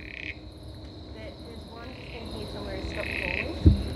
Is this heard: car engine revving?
no